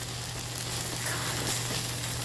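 Steady, dense sizzling of takoyaki with cucumber inside cooking in a hot pan, a continuous crackling hiss with a low hum underneath, no talking.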